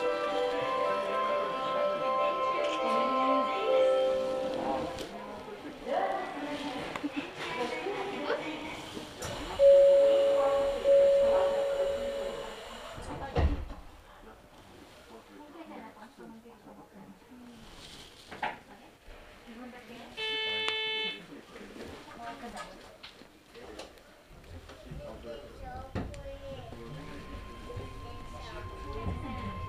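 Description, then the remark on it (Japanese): A Hakone-Yumoto-bound mountain railway train departs, with a steady mechanical rumble, a sustained warning tone and a brief electronic chime. Japanese announcements say the train is departing and warn of the closing doors, and voices carry over the moving train. “お待たせをいたしました。発車をいたします。”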